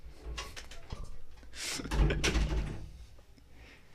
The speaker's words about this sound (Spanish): ¿Quieres abrirlo otra vez a la puerta?